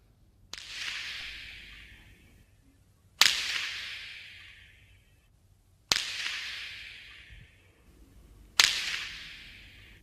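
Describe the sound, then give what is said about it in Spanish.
Four sharp, loud impacts ring out at steady intervals a few seconds apart, each a hard crack followed by a reverberant decay: a Basque pelota ball striking the wall of a frontón. “relatos diversos sobre la pelota, sobre el deporte de la pelota, desde los personajes, los pelotaris, los frontones, el juego y hasta el propio sonido de la pelota.”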